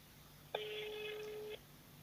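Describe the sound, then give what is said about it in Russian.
A single steady electronic phone ringing tone sounds for about a second, then stops, leaving quiet background; a call to a government authorities' number that no one answers. “Номер власти. не отвечает.”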